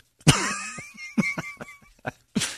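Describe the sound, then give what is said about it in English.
A voice imitates choking and gagging, starting with a harsh strained croak, then a series of sputtering, cough-like hacks and one last raspy burst, fairly loud with no words. “I like it to sound like a combination of uh, you choking to death and maybe being a little bit retarded.”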